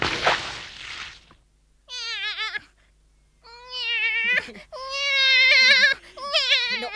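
A cat meows repeatedly, about four drawn-out, insistent cries with wavering pitch, following a brief breathy rustling noise at the start.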